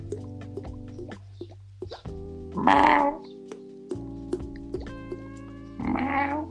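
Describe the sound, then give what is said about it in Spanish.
A person meows like a cat to imitate how a catfish moves through the water, in a few drawn-out vocal tones broken by short breathy bursts, with no talking in between. “¿Cómo irá el pez gato por el agua? Así.”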